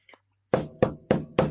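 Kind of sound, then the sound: impact, knocking on a door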